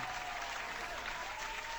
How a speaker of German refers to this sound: Hatten wir den Applaus damals auch schon?